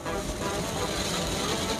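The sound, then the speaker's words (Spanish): Heavy rain drums steadily on the roof and windows of a car being driven, a dense, continuous roar heard from inside the vehicle, loud and unbroken, with no voices. “Hoy sí está un poco fuerte la lluvia.”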